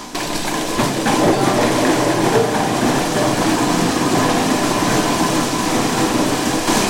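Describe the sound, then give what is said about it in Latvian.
A juice press pressing quinces runs steadily, a loud, unbroken mechanical rumble and whir that holds constant for the whole stretch, with no voices over it. “Šodien laikam tiek spiestas Cidonijas. Jā, jā? skan, varam ieiet pasmaržot.”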